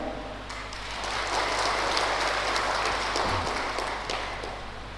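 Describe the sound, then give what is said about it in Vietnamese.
A crowd at a Buddhist teaching claps together to pledge a commitment, a dense, steady wash of applause that swells quickly and holds for several seconds before easing off slightly, with no voices over it. “nếu vì thấy việc làm đó uh, có thể khắc phục vượt qua được đó thì hãy dâng cao tràng pháo tay để cam kết”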